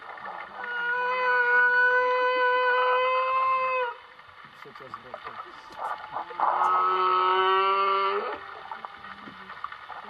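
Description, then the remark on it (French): Song of a male whale named Harry, picked up in a bay by an underwater microphone lowered from a boat: two long, tonal moaning calls rich in harmonics, each lasting a few seconds and separated by a short pause, over a steady low hiss and faint rumble. “Elle a ensuite diffusé les chants des cétacés sur les haut-parleurs du bateau.”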